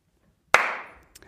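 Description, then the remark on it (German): A single sharp hand clap rings out of silence, its bright burst trailing off in a short decaying echo, followed by a couple of faint soft ticks. “Ja, klatsch nochmal.”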